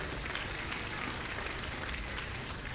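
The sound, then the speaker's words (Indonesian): An audience applauds for God during a sermon, many hands clapping together in a dense, continuous wash that holds an even loudness throughout, with no voices standing out. “Berikan tepuk tangan buat Allah kita.”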